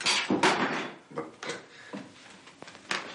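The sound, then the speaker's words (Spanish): A wooden chair breaks apart as a man grabs it to sit down: a burst of sharp cracks and clatter at the start, followed by scattered snaps, creaks and knocks of wood over a few seconds. “Se acerca a una silla. No, no, no, en esta no. Está desencolada. Agarra otra y se rompe.”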